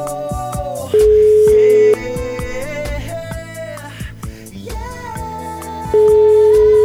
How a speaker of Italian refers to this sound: Secondo squillo andato, vai, quattro squilli e si chiude.